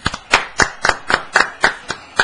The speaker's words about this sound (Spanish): Fuerte los aplausos para ellos también, por favor.